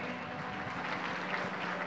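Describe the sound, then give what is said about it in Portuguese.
Steady applause from an audience at a church service, given for the Lord after a prayer: a dense wash of many hands clapping at an even, sustained loudness with no pauses or voices standing out. “Dê uma salva de palmas ao Senhor, amém?”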